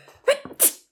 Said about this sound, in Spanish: Salud. Perdón. Estábamos, esperando este estornudo desde antes del episodio. Estamos muy contentos de que haya llegado.